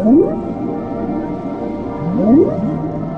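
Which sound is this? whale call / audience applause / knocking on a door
whale call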